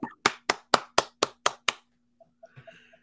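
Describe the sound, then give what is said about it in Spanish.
A single man claps seven times in a quick, steady rhythm, sharp, followed by a few soft scattered taps and faint rustling, celebrating news of a Houston Dynamo goal by Dorsey against Inter Miami. “dando una información que el señor celebra, aplaude, eh, o sea, En Houston, yo nací.”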